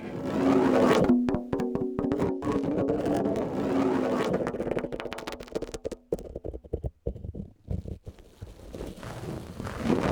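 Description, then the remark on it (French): Scratchy rubbing of a microphone against stretched skin, with a dull low rumble and irregular bursts of friction that thin out and stutter toward the end. No voices. “sur peau tendue.”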